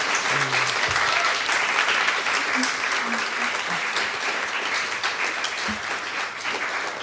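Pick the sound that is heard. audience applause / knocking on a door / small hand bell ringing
audience applause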